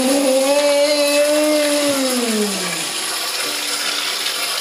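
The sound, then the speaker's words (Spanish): Water runs from a bathroom tap in a steady hiss while a boy pretends to wash his hands, with a loud pipe-like whine gliding downward in pitch over the first few seconds before fading into the plain rush of water. “y finge que se está lavando las manos en el baño mientras sigue jugando con su carro.”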